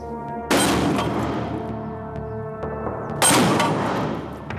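Two loud, sharp sniper rifle shots about three seconds apart, fired by a shooter lying 50 metres from a yellow metal target, each cracking out and then trailing off in a long echoing decay over a steady low background hum, with no voices.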